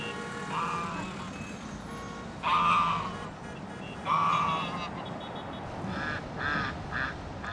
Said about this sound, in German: Berlin im Februar. Auf der Spree schwimmen ein paar Enten.